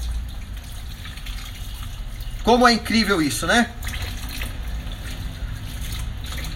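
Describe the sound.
A kitchen tap runs in a steady hiss while dishes are washed, the glasses already done and the cutlery now being washed, continuing unbroken the whole time, with a person speaking briefly over it partway through.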